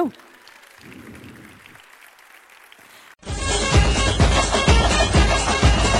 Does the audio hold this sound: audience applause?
yes